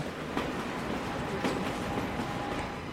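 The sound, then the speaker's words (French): Steady rumble of a train rolling past at Geneva station, in front of the Hôtel Le Montbrien, with faint rhythmic clacks from the wheels and a thin metallic whine running under the loud, continuous noise. “je retrouve maman devant l'hôtel Le Montbrien, garde de Genève.”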